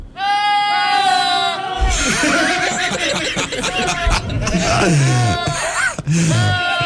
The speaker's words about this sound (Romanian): Astea sunt niște capre